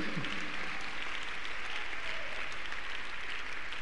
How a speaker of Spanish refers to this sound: Dar un aplauso grande Señor por eso, amén.